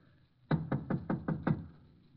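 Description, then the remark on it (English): Six quick, evenly spaced, firm knocks on a door, rapping in a steady rhythm with no voices. “Here it is, Walt. I'll give it a knock.”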